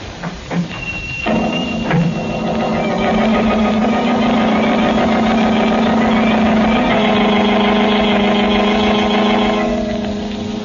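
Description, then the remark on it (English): A car engine starts with a few sputters, then settles into a steady, loud rumbling drone that holds for several seconds before easing off slightly, as if the vehicle pulls away; the Blue Beetle's speedy motor car setting out at night. “Again, the Blue Beetle rides the night wind in his speedy motor car, he sets out in search of the murderers of banker Ridley.”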